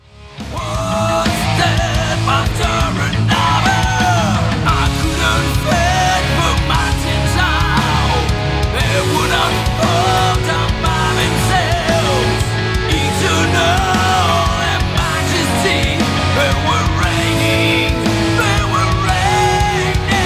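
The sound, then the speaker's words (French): Dense, loud progressive metal plays throughout, with heavy distorted guitars, a pounding low end and a melodic lead line winding over the top, steady and unbroken for the whole stretch. “qui nous proposent du métal progressif”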